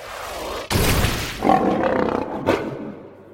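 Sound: lion roaring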